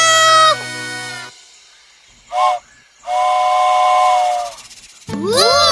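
A toy train whistle toots in several bright, tonal blasts: a long opening one, a short burst, then a sustained hissing whistle, ending with a rising sweep. The whistle comes from a little toy train found as a prize inside an Easter egg.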